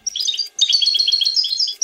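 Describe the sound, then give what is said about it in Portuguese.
A goldfinch sings a rapid, tumbling stream of bright twittering notes, clear, in two bursts separated by a short pause, with no voices. “O pintacilgo é um dos pássaros com o canto mais bonito.”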